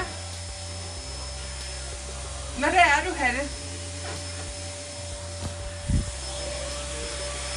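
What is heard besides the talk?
vacuum cleaner running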